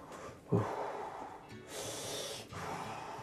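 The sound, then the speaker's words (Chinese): A voice imitates the snoring of a character in a children's story who fell asleep after biting an apple cursed with a sleeping spell: a low, rattling snort on the inhale followed by a long, airy hiss on the exhale, then a second snorting breath begins. Moderately loud, with no talking. “他睡着了， 就打呼了。”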